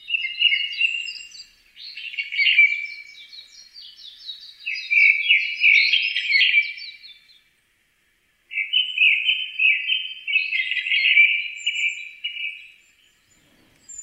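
japanese thrush song

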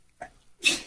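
sneeze

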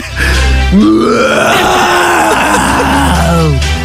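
lion roar

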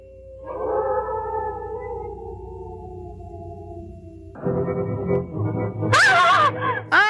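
wolves howling

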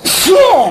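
sneeze

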